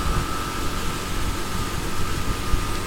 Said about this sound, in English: And we'll go onward up the river. hope you can hear above the noise of the outboard motor, but the river here is a way of life